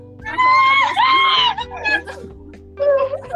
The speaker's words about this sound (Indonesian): eh tolong ini gue pakai headset jadi jangan teriak ya kuping gue bisa budek